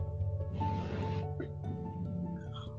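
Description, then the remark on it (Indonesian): A voice imitates a door opening in a grandfather's house with a breathy, hissing whoosh over a low hum, then a few short squeaky vocal sounds, all fairly loud. “kalau mau ke kamar mandi itu ada dua pintu dari rumah gua dan ada dua pintu dari rumah kakek gua dan itu kalau dibuka itu bunyi”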